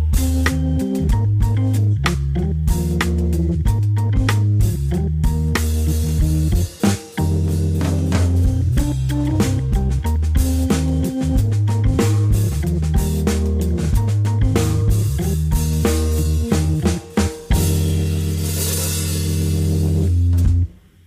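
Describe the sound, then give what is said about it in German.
Music plays continuously for about twenty seconds at the Kulturpalast in Dresden, loud and full, with a steady bass line, repeating rhythmic patterns and bright percussion, briefly dipping at a couple of pauses, with no voices over it. “ich denke, weil die Musik so schön ist und noch keine zehn Minuten um sind, können wir noch mal was hören.”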